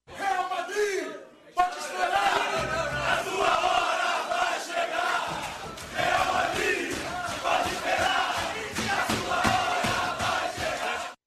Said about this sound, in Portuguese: O vice-presidente de futebol, Marcos Braz, puxou um grito no vestiário do Flamengo, lembrando a possibilidade de encontro com os espanhóis.